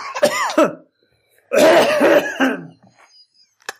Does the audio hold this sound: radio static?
no